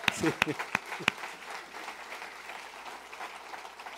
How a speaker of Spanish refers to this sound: Hoy celebramos también 28 años como Senfol. Mírenlo. Démosle un aplauso.